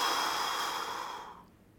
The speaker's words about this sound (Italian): e lo si fa 30 volte quindi alla fine di queste 30 respirazioni l'ultima buttiamo fuori tutta l'aria uff